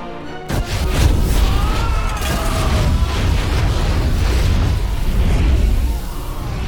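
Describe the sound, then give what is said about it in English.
Fire breathers blow flames upon a crowd: the flames burst out with a sudden loud whoosh, then keep roaring in a deep, rumbling rush for several seconds, with a few faint high wavering tones riding on top. “Now, fire breathers, it's your moment to shine. Blow your fiery breath upon this crowd of monsters.”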